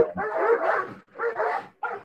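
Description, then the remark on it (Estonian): Two dogs behind a fence bark loudly in three quick bursts, the first long and harsh, then two shorter ones, with no one talking. “niimoodi aed vaikselt avanevad, ära lauguvad, siin on pilgud ja kehakeel ja kõik on väga vihased mida rohkem see aed lahti läheb, noh siis lõpuks üldse koerad loobuvad sellest haukumisest”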